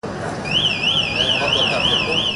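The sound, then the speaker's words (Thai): A car's child-left-inside warning alarm, a device developed at Lampang Technical College in Thailand, wails in a steady, rapid up-and-down electronic warble, fairly loud, repeating continuously over a murky background rumble, as the car windows lower for ventilation and the doors unlock automatically after an in-car camera detects movement. “เสียงสัญญาณเตือนจะดังขึ้นทันที พร้อมกระจกรถยนต์ลดลงเพื่อถ่ายเทอากาศ และประตูรถจะถูกปลดล็อกอัตโนมัติ หากกล้องติดตั้งภายในรถ ตรวจพบความเคลื่อนไหว”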